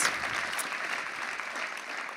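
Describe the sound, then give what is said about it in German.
Steady audience applause, a dense wash of many hands clapping at an even level throughout, with no voices standing out. “Dein Applaus!”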